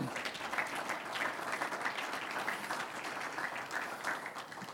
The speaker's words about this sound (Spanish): Un aplauso al Señor.